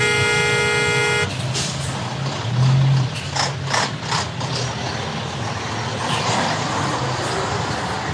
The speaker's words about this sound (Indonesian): ya Allah macet banget nih